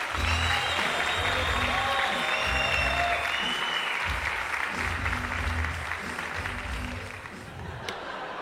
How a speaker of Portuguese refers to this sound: Então, uma salva de palmas para ele.